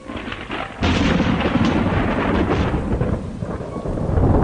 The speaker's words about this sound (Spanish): Una fuerte tormenta azotaba esa noche la ciudad de Morelia,